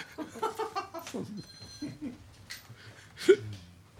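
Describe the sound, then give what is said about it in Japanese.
A phone rings during a meeting, briefly, with a thin, steady, high electronic tone, fairly faint, amid murmuring voice-like sounds and a soft thump near the end. “会議中に電話鳴らせた誰だあ僕でし”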